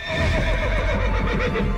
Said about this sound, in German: Dieses Pferd ist gefährlich. Der trägt seinen Namen nicht umsonst.